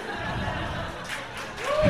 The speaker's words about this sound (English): oh, applause break.